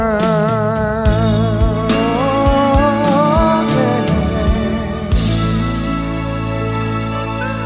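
A recorded pop song with a male-style sung vocal holding long, wavering notes over full instrumental backing and soft rhythmic beats, steady and fairly loud throughout.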